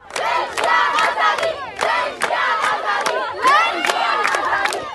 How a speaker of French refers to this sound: Comme le dit encore Manas Shirali, les manifestants le scandent ouvertement dans la rue.